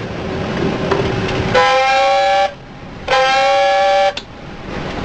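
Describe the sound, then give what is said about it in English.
Two loud, blaring blasts of a submarine dive alarm, sounded on the order to submerge the ship, each lasting about a second with a brief gap between, rising slightly at the start, over a steady background rumble. “Sound two blasts of dive alarm.”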